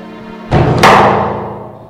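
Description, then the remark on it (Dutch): A heavy holding cell door swings shut with a loud slam, a short thud followed by a sharper metallic crash that rings and slowly fades. Nobody speaks. “En toch best een gek gevoel als die deur dan dicht gaat.”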